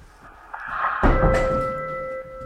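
An office door swings shut with a single solid thunk, followed by a sustained tonal hum and a faint rattle as the sound settles; no one speaks.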